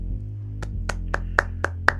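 Six crisp, sharp claps in a studio land in a steady, even rhythm about a quarter-second apart, over a low constant hum, with no one talking.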